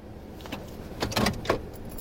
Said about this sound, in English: Hook pulls his truck over and parks under a stand of hemlock trees.